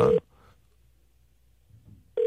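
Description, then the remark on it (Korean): A telephone call ringing on the line as a call is placed to a listener: a steady, buzzy mid-pitched ring tone cuts off, then a long quiet gap of about two seconds before the ring starts again. Nobody speaks. “1749님한테 전화 한번 걸어보겠습니다.”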